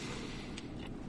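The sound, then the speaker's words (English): A steady, low electric hum from an electric space heater in a basement drones on evenly for about a second, with faint hiss above it. The level holds constant throughout and no voices are heard. “If you hear some humming in the background, I have a heater in here now because it's cold as hell where I live, and I've been freezing in the basement.”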